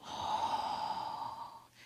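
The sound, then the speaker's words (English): A long, deep breath taken during a guided breathing exercise, a steady airy rush lasting nearly two seconds before it fades, with no talking. “I invite you to breathe with me. Breathing in together and then breathing out.”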